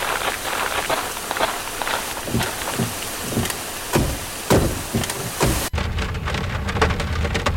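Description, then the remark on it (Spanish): A rainstorm pours down in a forest in a steady, dense hiss, with scattered sharp spatters of drops striking surfaces. Near the end the sound abruptly turns duller and muffled, with a low rumble. No one speaks. “Uy, ¿escucharon eso? Mejor vamos al auto que se viene una retormenta.”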